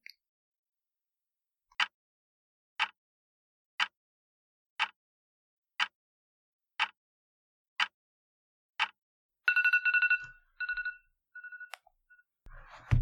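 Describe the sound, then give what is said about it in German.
A two-minute timer alarm goes off: eight short, sharp beeps at a steady one-per-second pace, followed by a brief burst of denser, warbling electronic tones, with no one talking. “Okay, Timer sagt, zwei Minuten sind rum.”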